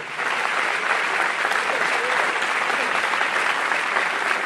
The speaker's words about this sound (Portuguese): Se você recebe, aplauda ele, porque ele é bom.